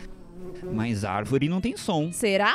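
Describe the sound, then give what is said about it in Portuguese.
A voice mimics a mosquito's whining buzz, the nasal drone wavering and sliding in pitch over a couple of seconds, with some spoken words mixed in. “Olha, eu até sei imitar o som de cachorro, de mosquito”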